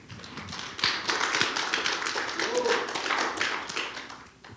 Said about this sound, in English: Uh, and I believe we have a baptism after service today. Amen. Yeah, you can clap if you want.